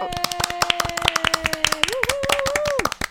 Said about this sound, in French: Je pense que ça mérite quelques applaudissements.